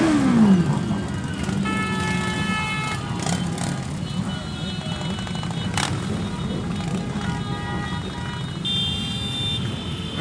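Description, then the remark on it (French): A dense, continuous roar of about 400 motorcycle engines idling and revving together, loud, with rising engine whines and faint crowd voices mixed into the rumble, as the riders gather for a convoy. “Le gars qui vient de parler, il est debout sur un camion avec six enceintes autour de lui et 400 motards prêts à le suivre.”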